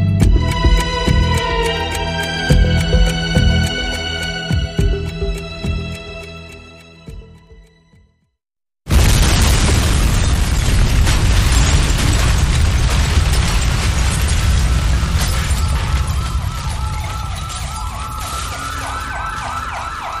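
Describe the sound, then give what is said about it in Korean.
Tense music fades into a brief silence, then a sudden, loud explosion of a cryptocurrency exchange building on Teheran-ro, Gangnam-gu, Seoul, around 9:30 in the morning bursts in, followed by a sustained roar of rumbling debris with sirens wailing through the chaos. “오늘 오전 9시 30분경 서울시 강남구 테헤란로에 위치한 가상화폐 거래소가 폭발되는 사고가 일어났습니다.”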